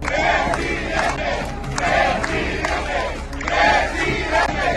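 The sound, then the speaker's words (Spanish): A large crowd chants "presidente" at Marcelo Ebrard in loud, rhythmic unison, the shouts swelling and repeating roughly every second and a half over a dense, roaring mass of voices. “Gritan presidente”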